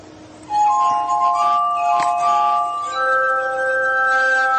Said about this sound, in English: voila, one of Franklin's favorite inventions. So uh, these are all wine glass, basically custom blown wine glasses, and they're all nested inside of each other, and the whole assembly is turning, so you can play it somewhat piano-like.